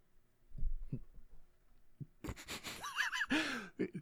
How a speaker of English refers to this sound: Folks at home, you can probably actually hear my feet shuffle. yeah, probably because you shook the whole damn table,